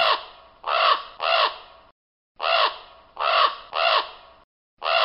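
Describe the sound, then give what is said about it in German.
Harsh, raspy caws of ravens living at the Tower come in two bursts of three calls each, loud, separated by a short silence, with another call starting at the end. No talking. “Viele Leute kommen tatsächlich nur deswegen in den Tower, weil sie von den Raben gehört haben, die hier leben.”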